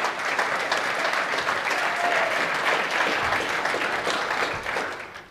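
An audience in Ebersbach applauds steadily, a dense wash of many hands clapping at an even loudness that holds throughout and tapers slightly at the very end, with no voices standing out.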